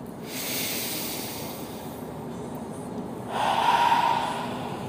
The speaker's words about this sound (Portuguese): Quer mudar a tua ansiedade agora? Puxa comigo uma profunda e lenta respiração assim, ó.